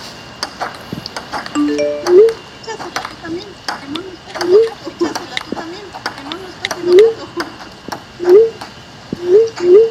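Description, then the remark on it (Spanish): A phone's message notification pings again and again, about nine short rising beeps arriving roughly every second, loud, with a faint murmur of voices underneath. “¿Ven lo que pasa con el mensaje? Mira, mira, nena. Mira, mira ¡Entra el trabajo, ¡Entra el teléfono.”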